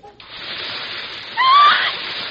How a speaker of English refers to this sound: No, this'll work great. One drop of this stuff and it's gone. I just pour it like this and you will see the stain disappear.